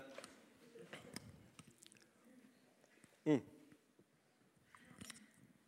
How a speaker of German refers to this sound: Ich muss noch schnell mein Wasser nehmen. Es ist trocken.